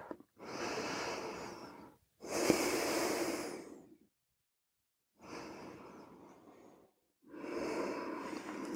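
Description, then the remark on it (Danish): Three slow, deep breaths taken with eyes closed to relax the body, each inhale and exhale lasting nearly two seconds, with a brief pause between cycles; fairly loud, with no talking. “Tager tre dybe, lange vejrtrækninger og slapper fuldstændig af i vores krop.”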